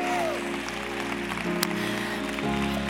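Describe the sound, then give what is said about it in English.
A crowd at a worship conference claps steadily in a dense, continuous patter, with sustained musical tones humming underneath and one sharper crack standing out partway through. “If you believe, come on, keep on clapping that God is restoring.”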